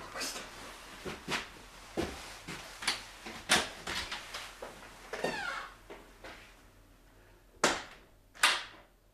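A door is opened and shut, with a series of sharp clicks, latch rattles and knocks, ending in two louder slams, with faint indistinct murmuring in the background.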